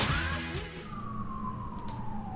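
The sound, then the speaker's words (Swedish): A police or emergency vehicle siren wails outside in New York, one long tone gliding slowly downward over a low traffic rumble, with no one speaking. “Det är väldigt New Yorkigt att man i bakgrunden nu har liksom polissirener eller typ, det är någon sorts utryckningsfordon.”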